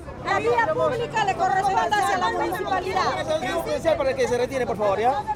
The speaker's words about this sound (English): A phalanx of officers in riot gear stare on from across the street as the crowd shouts back.